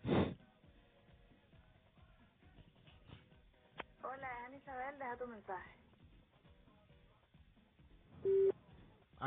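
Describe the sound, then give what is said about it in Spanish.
A phone call placed during the live show The Cave en vivo rings through a narrow, tinny line with no one picking up, voices murmuring over it, ending in a single steady beep like a voicemail tone. “Contesta, contesta. Debe estar con el novio o algo por el estilo.”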